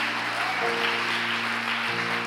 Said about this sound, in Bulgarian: О, ако ръкопляскаш, ръкопляска, като че наистина вярваш.